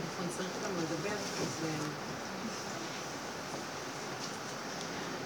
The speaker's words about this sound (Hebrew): לא, בגלל הרעש, יש רעש כזה של גשם? זה המזגן.